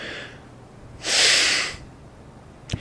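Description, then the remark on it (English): A single loud, forceful exhale lasting under a second, a breathy rushing hiss of yoga lion's breath, breathing in through the nose and out through the nose, preceded by a faint softer breath and followed by a small click. “Now, if you do yoga, you might start in your nose, out your mouth, and then after a couple, you might go in your nose and out your nose again. in a loud way. It's called lion's breath, interestingly enough”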